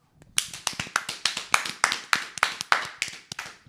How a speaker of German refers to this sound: Ich finde, da können wir kurz klatschen für.